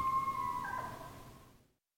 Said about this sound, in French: Un changement d'époque se répand sur la vallée. Mais les coyotes ont toujours le même cri.